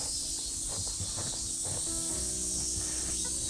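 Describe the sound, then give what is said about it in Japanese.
Cicadas drone in a steady, high-pitched, unbroken buzz that fills the whole moment, with soft low thumps and rumbling beneath and no one speaking. “それにしても、セミが、いいに泣いてますね。”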